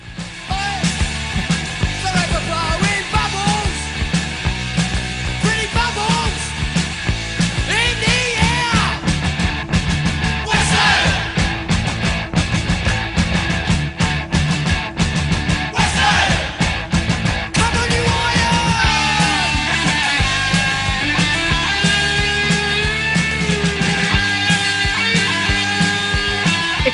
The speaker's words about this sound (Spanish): me suena super punk y navideña esta canción